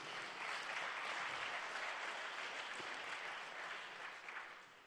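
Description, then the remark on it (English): A roomful of people clap together for some men who carried chairs to the front, in a steady, dense burst of applause that holds for several seconds before thinning slightly at the end, with no talking over it. “Now we'll clap our hands for you.”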